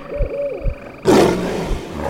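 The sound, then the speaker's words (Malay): A tiger lets out a loud roar that bursts in after a second of quieter low rumbling and tonal sounds, then sustains as a harsh, broad growl to the end. “Bunyi deruman harimau itu semakin dekat.”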